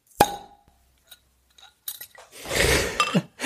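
A beer bottle is opened: a sharp metallic clink as the cap pops off, a few small clicks, then a loud rushing fizz of carbonation that swells and hisses.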